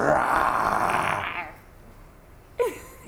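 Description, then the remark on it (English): A child lets out a rough, breathy growl imitating a bear, sustained for over a second, then a pause and a brief voiced sound near the end. “Bear, can you can you growl like a bear?”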